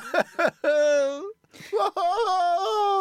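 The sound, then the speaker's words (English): Becky Lynch gives two long, strained wails, each preceded by short wheezing gasps for breath; the cries are loud and sustained, with a droning, reedy quality. “she sounds like a human bagpipe.”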